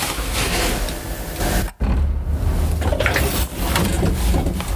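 A door closes with a long, rumbling scrape, a brief hush partway through, then the grinding movement continues; no one speaks.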